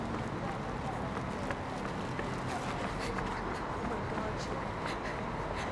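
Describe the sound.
Rapid footsteps of people running to catch a bus, a quick uneven patter of thuds over a dense, rustling background, with muffled voices mixed in.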